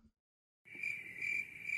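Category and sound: insect, cricket chirping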